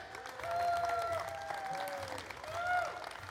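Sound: audience cheering and applauding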